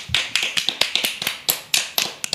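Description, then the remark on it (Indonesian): A small group clapping hands in applause, a quick irregular patter of sharp, bright claps that overlap unevenly, with no voices. “Wah tepuk tangan dong, tepuk tangan.”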